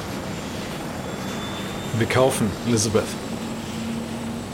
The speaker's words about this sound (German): Der Pilot startet, der Rotor beginnt sich zu drehen.